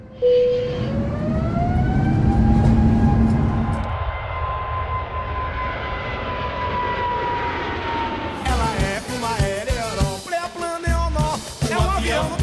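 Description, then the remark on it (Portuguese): A loud airplane engine roars steadily, its whining pitch slowly sliding lower as it passes, before it gives way to busier, clattering music-like sounds for the last few seconds. “Obrigada por voarem com a Novelesco Airlines a companhia que é um aereoró, Pleaplan, Neonor, um avião.”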